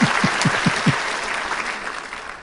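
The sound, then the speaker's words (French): Brief applause: a steady, quick rhythm of hand claps, with a few sharp beats standing out in the first second, then a dense patter of clapping that fades slightly toward the end. “Mais euh, on je pense qu'on peut leur donner une main d'applaudissement.”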